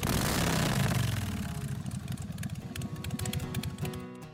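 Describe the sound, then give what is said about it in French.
A motorcycle engine fires up with a loud, rumbling roar, then settles into a throbbing, uneven idle with rhythmic putters. No voices are heard. “Mettez votre casque, tordez la poignée, on part la machine.”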